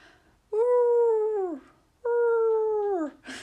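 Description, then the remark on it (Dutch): A person imitates their own dog's whining bark: two long, drawn-out yelping howls with a falling pitch at the end, fairly loud, separated by a short pause. “Mijn hond heeft zo'n... Een... Ehm, jankende blaf een beetje.”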